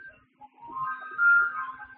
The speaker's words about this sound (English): Um, is it kind of late for the ice cream truck? I mean, even on the West Coast.